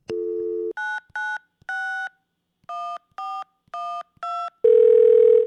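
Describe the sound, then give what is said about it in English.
A steady telephone dial tone, then a quick series of eight touch-tone dialing beeps in an uneven rhythm, ending with another loud sustained phone tone, as a call is placed to Mauricio Escamilla, founder of Mowri Audio. Clear, with no voices. “I'm going to give Mauricio Escamilla a quick call, the founder and executive creator of Mowri Audio, a full service audio, sound design, and music production studio based in Ridgewood, Queens, New York.”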